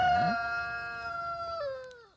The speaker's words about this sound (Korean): 오늘 닭이 야 오늘 우렁차 보이는데 락스피릿이라 그런지 네.